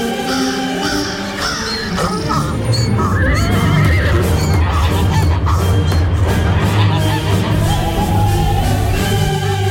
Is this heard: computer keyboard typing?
no